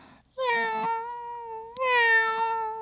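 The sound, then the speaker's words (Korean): A house cat that has climbed to the top of a bookshelf whines to be helped down: two long, drawn-out whiny meows follow one after the other, fairly loud, each call holding a steady plaintive tone with no other sounds around them. “우리 집 고양이가 책꽂이 제일 꼭대기까지 올라가서는”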